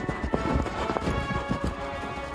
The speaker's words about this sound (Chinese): 这时，麋鹿出现在眼前，要载他们一程。他们爬上麋鹿的背，紧紧搂住麋鹿的脖子，咯噔咯噔地向前冲。